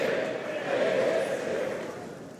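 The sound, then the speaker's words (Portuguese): Sustained standing applause from a crowd in Portugal for Luís Montenegro, a dense, steady wash of clapping that swells slightly in the middle and then eases off toward the end, with a murmur of voices mixed in. “A apresentar as notas curriculares, uh, Luís Montenegro, ao país, uh, agora que precisa que uh, todo o país o conheça melhor também aqui a merecer mais um aplauso de pé com este retrato, com este autorretrato que acabou de traçar.”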